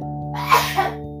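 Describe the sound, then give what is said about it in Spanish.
A single sharp sneeze bursts out, a quick breathy explosion over a steady low electrical hum, with no talking. “Salud.”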